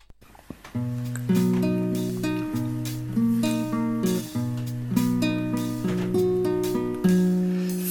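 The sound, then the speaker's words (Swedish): A homemade song, titled 'Det, det är väl så världen ser ut', plays its instrumental intro alone: sustained chords and a bass line change every beat or two, with percussive hits marking a steady rhythm, full and fairly loud. “här får du en väldigt dålig och eh, onödig låt som jag ska spela här som jag själv har gjort.”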